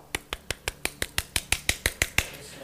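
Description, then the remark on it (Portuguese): Knocking on a door: a quick, evenly paced run of about fourteen sharp, crisp raps, each dying away fast, with no voices. “Ele vai chegar na sua casa, na sua porta, vai bater, ó.”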